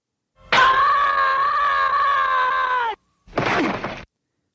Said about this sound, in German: Das ist aus Peanuts. Das ist Charlie Brown. Org nennt sich das. Org. Org. Der Org-Schrei. Und hier ist der hörte genau hin, wie er hier geloopt ist. So Org.